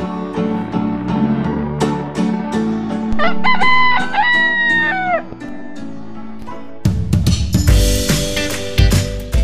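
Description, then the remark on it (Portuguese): A rooster, the fable character Galo Mateu, lets out a single drawn-out crow, rising and then falling in pitch, over a bed of busy, rhythmic background music that swells louder toward the end. “E graças ao fato do Galo Mateu ler os jornais todos os dias, eles não acreditaram na notícia.”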